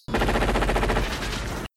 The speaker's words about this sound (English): uh, three laid to waste by Dutch's M16.